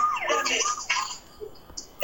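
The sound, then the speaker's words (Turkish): A song plays with a wailing, siren-like tone sweeping up and down through the first second, then the music thins out into quieter scattered sounds. “Tam tam Los Angeles'taki polis sirenlerini hatırladım.”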